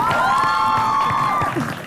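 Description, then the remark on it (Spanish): An audience cheers loudly, with one long, high whooping shout held over a dense wash of crowd noise and clapping for nearly two seconds. “Fuerte aplauso para”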